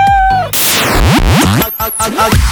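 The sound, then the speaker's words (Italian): A few loud kitten meows rise and fall in quick succession, tangled with a burst of hissy noise and other sweeping, squeaky sounds. “Stai buono gattino, che tra poco ci occupiamo di te, basta!”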